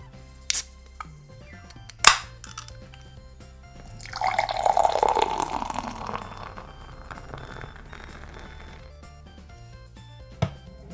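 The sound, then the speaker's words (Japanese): Two sharp clicks as a sour beer made with anko (sweet bean paste) is opened, then a steady, fizzy pour of the clear, deep-gold beer lasting a few seconds that tapers off, followed by one last faint click. “でさらにそこにねちょっと酸味のあるサワーっていうねビールの要素が入っているのでうんもうちょっとねどんな味なのかっていうのは想像つきません、うんまあ、じゃあねこれも飲んでみないと分かりませんからねじゃあちょっと開けていきます”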